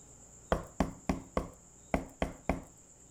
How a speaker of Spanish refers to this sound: Al llegar a la casa de su abuelita, llamó a la puerta.